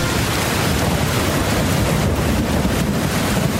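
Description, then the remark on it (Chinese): A heavy rainstorm roars steadily, a dense, unbroken hiss with a low rumbling undertone and gusty wind, holding at a constant loud level throughout with no voices. “下雨。从那一天停电之后，雨就没有停过。”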